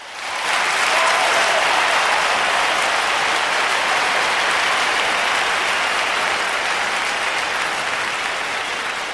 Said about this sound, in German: erstmal natürlich einen Riesenapplaus und Dankeschön an unsere …